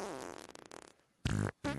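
A cartoonish fart sound effect used as outro music: a long, sputtering, buzzy toot that trails off, then after a brief gap two short, loud, blaring blasts, with no talking.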